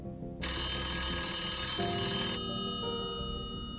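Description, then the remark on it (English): A telephone bell rings in one loud, continuous metallic burst of about two seconds, then fades out with a lingering ringing tone. No one speaks. “Within an hour, the police received a phone call from someone who claimed to be the shooter and claimed to be the shooter in the previous murder.”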